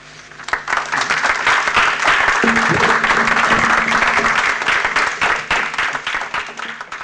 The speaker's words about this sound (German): Applaus